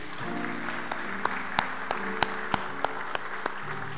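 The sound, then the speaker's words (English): An audience at a Family Day worship service applauds the choir and band steadily for about four seconds, a dense wash of clapping with a few sharper claps standing out, while low sustained musical tones linger underneath. No one speaks. “Before the reading of the announcements, let's give a hand to our choir and band.”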